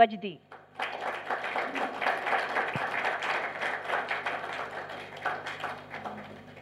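A crowd breaks into steady, sustained applause, a dense wash of many hands clapping at even loudness for several seconds before easing off slightly at the end.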